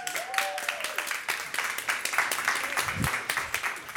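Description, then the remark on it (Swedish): A crowd at Poddfest at Fotografiska applauds steadily as a guest takes the stage, a dense, continuous patter of many hands clapping at fairly even loudness for several seconds, with a few faint whoops and cheers rising through it. “En varm applåd!”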